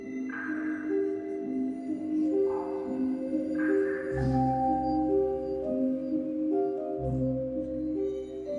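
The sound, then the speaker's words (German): Slow, mellow pitched tones ring out one after another with long sustain, forming a soft melody with deep bass notes: a cave organ whose keys trigger small rubber hammers striking particular stalactites, echoing in the cave. “Jeder Tastenanschlag löst einen Mechanismus aus, der einen kleinen Gummihammer gegen einen ganz bestimmten Tropfstein schlagen lässt.”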